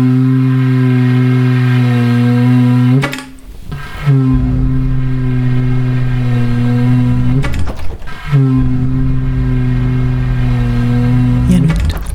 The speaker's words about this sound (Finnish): Hyvät kuulijat, nyt on vuorossa turha ääni. Tämän äänen olisi voinut salata, mutta ehkä kuitenkin parempi tehdä se julkiseksi. Vuorossa on Aalto-yliopiston metroaseman roskiksesta löytyneen vesijohtoputken pätkän ääni.